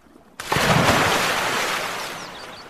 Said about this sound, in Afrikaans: Seekoei beland pens en poetjies terug in die rivier.